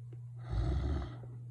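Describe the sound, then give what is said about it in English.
A single rough, rumbling snore from a sleeping man swells up and fades over about half a second, with a steady low hum underneath and no talking. “No, he's snoring.”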